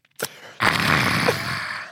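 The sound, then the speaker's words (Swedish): A person imitates a man on a train taking a quick sip of coffee followed by a long, loud, breathy exhale with a voiced 'aah', like a satisfied sigh after a drink. “Ja, jag satt bredvid en kille på tåget som gjorde, gjorde det här. Tar en klunk och, och bara...”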